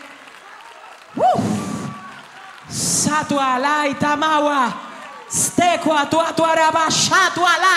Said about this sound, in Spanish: Si le va a dar un aplauso al Señor, déselo bien.